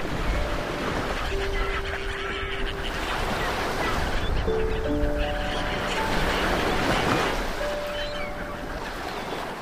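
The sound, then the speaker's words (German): A steady roar of ocean waves washing onto a beach, swelling and receding, with scattered honking bird calls rising briefly above the surf. “Ruhe dich etwas auf der Düne aus und beobachte das Spiel der Wellen.”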